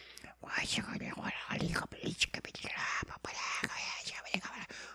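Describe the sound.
Eerie, breathy whispering voices murmur continuously from a video game controller's speaker, slightly tinny, with no clear words, just hushed overlapping hisses and sibilants.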